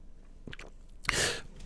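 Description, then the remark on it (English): A single sip of a bitter pale ale beer: a few soft mouth clicks, then a brief airy slurp of liquid that swells and fades. No one speaks. “I'm gonna take a sip right now. Let's let's, let's do a live taste test here.”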